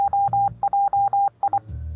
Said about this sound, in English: That's the that's the news alert here at the North Pole News Dispatch when the Christmas and holiday news comes across the wire, it lets me know. So that's, that's how I get my news. So I apologize for that little noise